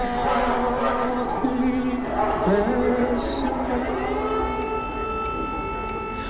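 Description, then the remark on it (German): A civil defense air raid siren wails steadily outdoors, heard from inside a church, its rising and falling tone sustained throughout, with faint murmuring voices underneath. “Und plötzlich hört man dann wieder von außen diesen Sirenenalarm, der uns einfach diese ganze Zeit immer begleitet hat, immer wieder.”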